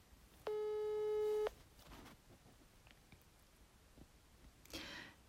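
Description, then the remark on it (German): A single steady ringback tone on an outgoing phone call, a mid-pitched electronic beep lasting about a second, followed by a quiet pause with faint clicks and a brief rustle. “Ach, die Spannung steigt, es klingelt, aber noch meldet sich niemand.”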